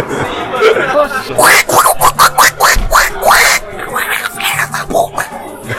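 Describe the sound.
A person does an angry Donald Duck voice imitation, a rapid string of raspy, garbled quacking bursts spoken loud, with faint chuckling mixed in.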